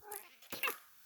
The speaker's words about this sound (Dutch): Ja, dat is mijn kat. die wil altijd lekker meelullen op het moment dat ik tegen mijn telefoon aan ga praten.